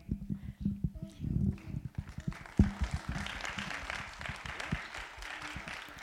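An audience gives another round of applause, starting as scattered, uneven claps that quickly build into a dense, steady round of clapping from many hands, holding at a moderate level to the end.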